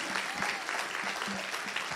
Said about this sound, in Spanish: Vamos, darle un aplauso fuerte a Jesús.